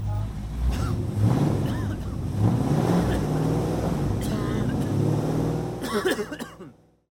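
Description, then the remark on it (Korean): A combustion-engine car drives past spewing acrid exhaust fumes, its engine droning and revving loudly for several seconds before the noise quickly fades away. “이 소리는 기후 위기를 심화시키는 내연기관차가 매캐한 매연을 뿜으며 지나가는 소리입니다.”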